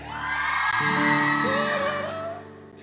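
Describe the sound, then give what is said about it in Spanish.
A young man lets out a long, loud shout from the audience, his voice sustained for a couple of seconds and rising in pitch before fading, amid a noisy crowd. “Sí, no, no, vi que un muchacho gritó, ¿qué te pasa?”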